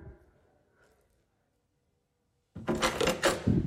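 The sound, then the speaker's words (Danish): After a near-silent stretch, a door is suddenly slammed shut, a loud wooden impact followed by about a second of rattling and scraping. “Skulle jeg komme til at smække dig? Det var ikke meningen.”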